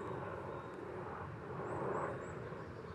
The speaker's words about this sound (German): Und das ist so krass so krass wie dieser Helikopter, Mann. So, der Tank von Helikopter ist nichts gegen meine Energie, weil ich das mache, was ich liebe.